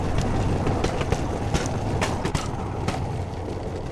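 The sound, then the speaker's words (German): A bamboo train rattles steadily over uneven rails without slowing down, even when passing larger warps in the track bed. It makes a continuous loud rumble broken by irregular clacks and sharp knocks as it jolts along, with no voices. “Selbst dann drosselt er nicht das Tempo, wenn der Bamboo Train größere Verwerfungen im Gleisbett passiert.”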